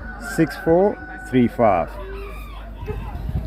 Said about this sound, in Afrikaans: Okay, ek dink die geveertes roep julle.